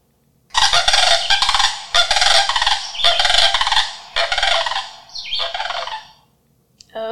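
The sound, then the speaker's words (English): Sandhill cranes call in a run of loud, rolling, rattling bugles, about five bursts in quick succession, harsh, played from an app on a phone, with no one talking over them. “Okay, uh, and because I have an app on my phone, I wanted to play for you what sandhill cranes sound like.”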